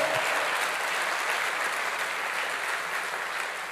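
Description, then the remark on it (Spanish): Steady applause from a crowd, offered to the Lord, a dense, sustained wash of clapping at even loudness throughout, with no speech over it. “Eso se merece un, fuerte aplauso al Señor.”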